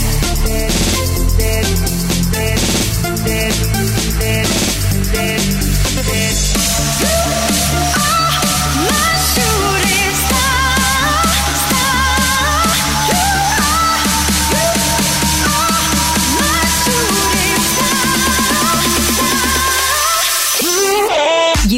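A loud dance remix of a French-language pop song, out on Mercury Universal Records, plays continuously, with a driving, pulsing beat and layered synth lines, briefly thinning out near the end before the full mix returns.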